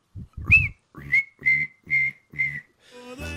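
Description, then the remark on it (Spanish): A person imitates the night-time noise of cicadas with a series of five short, shrill, whistly bursts repeated in a steady rhythm, fairly loud, with no other talking. “las cigarras, güey. Las chincharras que les decimos nosotros que en la noche hacen...”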